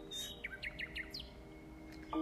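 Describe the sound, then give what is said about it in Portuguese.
Small caged birds chirp and tweet in a quick run of bright, sweeping notes over a steady low hum, with a brief higher warble near the end. “Veja todos os passos engaelados, estão sempre cantando.”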